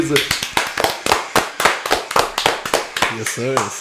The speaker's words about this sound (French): On applaudit les boys.